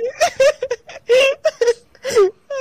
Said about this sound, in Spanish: yo lo vi llorando.